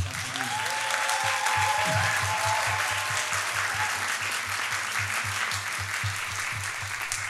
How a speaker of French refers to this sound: Et me voici, dix épisodes plus tard, en live du festival Chats de la pensée avec un public. Est-ce qu'on pourrait avoir des applaudissements C'est un truc de ouf quand même.